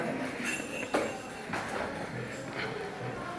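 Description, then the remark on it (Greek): A door closes with a single solid thud near the start, followed by a few faint rattles and clinks against a quiet, slightly noisy background. “Μισό λεπτό, πρόεδρε, μισό λεπτό να κλείσουμε και την πόρτα.”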